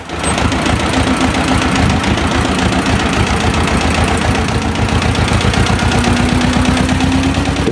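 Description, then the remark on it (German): A tractor engine labours under heavy load while pulling a tree trunk uphill, a loud, steady low-pitched chugging with rapid rhythmic knocking that holds constant throughout, with no voices. “das war jetzt unter Last. Ne? Da habe ich einen Baumstamm gezogen und mhm. bin bergauf gefahren.”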